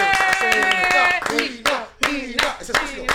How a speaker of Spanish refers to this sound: Un aplauso.